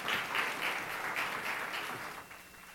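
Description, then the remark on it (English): An audience at a Passover presentation applauds steadily in welcome, a dense wash of many hands clapping at moderate volume that holds for a few seconds before thinning out slightly toward the end. “let's give them a, a round of applause and a warm welcome once again.”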